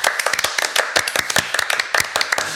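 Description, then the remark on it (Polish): Brisk hand clapping celebrating Podbeskidzie's first win of the season, 1-0: a quick run of sharp, crisp claps tumbling over one another in an uneven rhythm, fairly loud and steady throughout with no voices. “Może minuta od oklasków, nie wiem, bo, bo trochę musieliśmy na to czekać.”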